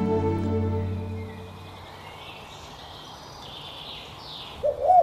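A low, throaty coo from a pigeon sounds at the start and fades after a second or so, then some faint bird calls and a brief brighter chirp near the end.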